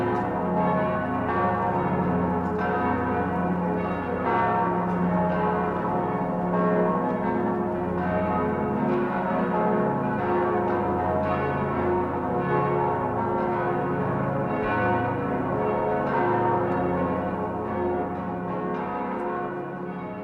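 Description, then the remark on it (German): The large bells of Passau Cathedral ringing together in a dense, continuous peal, their overlapping deep and bright tones swelling steadily and filling the air for the full length without any voices. “Der Wind trägt den Gesang der Passauer Domglocken über die Hügel um die Stadt und die Flüsse hinauf.”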